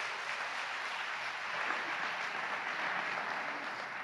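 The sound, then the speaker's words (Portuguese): Steady audience applause for a group seated among the audience, a dense crackle of many hands clapping at an even level for the whole stretch, with no voices rising above it. “Dá uma salva de palmas para essa tribo aqui, ó.”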